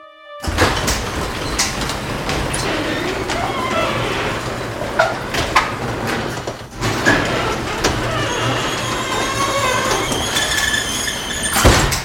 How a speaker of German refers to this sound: Das ist eine Kernbohrmaschine, Kernbohrer, die durch Beton durchgeht.